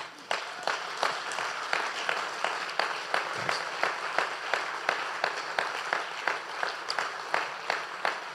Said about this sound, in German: Gebt doch Gott mal einen dicken Applaus.